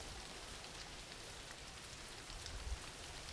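Steady rain falls as background for a sleep relaxation, a continuous, even hiss spread across the whole range, with a few slightly heavier drips near the end. No one speaks.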